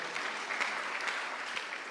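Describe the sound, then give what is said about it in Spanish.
A church audience claps loudly for the King of Glory in a steady, dense wash of applause, many hands overlapping into a continuous crackling roar with no voices standing out. “Vamos, dele palmas fuerte al Rey de la Gloria.”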